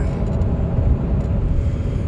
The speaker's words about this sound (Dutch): Een podcast vanuit de auto en het is vandaag een hele mooie warme dag.